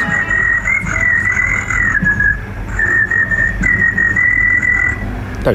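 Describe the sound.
A person whistles a sustained, trilling high tone in imitation of a cricket, held steadily for several seconds with brief breaks, loud over a low rumbling background.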